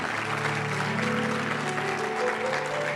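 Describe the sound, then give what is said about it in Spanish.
An audience applauds the Lord during a morning church service, a dense sustained wash of many hands clapping throughout, with faint sustained tones from an organ or keyboard underneath and a few voices mixed in. “Déselo fuerte al Señor esta mañana.”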